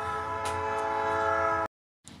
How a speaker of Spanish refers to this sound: Bueno, por si escucharon al tren ahorita que empezó eh, la magia de la edición.